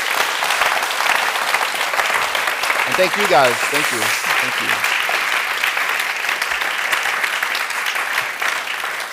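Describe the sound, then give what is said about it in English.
Sustained audience applause for two artists at the end of a book event, a dense, steady wash of clapping that holds loud for the full stretch, with a voice briefly speaking thanks over it partway through. “Um, maybe a big round of applause for these two wonderful artists.”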